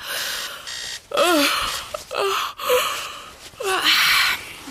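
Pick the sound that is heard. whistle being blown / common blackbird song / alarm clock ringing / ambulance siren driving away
alarm clock ringing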